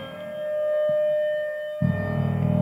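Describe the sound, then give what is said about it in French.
A siren holds a steady, moderately loud tone with no one speaking, and after a couple of seconds a heavy low rumble joins in beneath it. “On entend des sirènes et des coups comme un grognement portuaire.”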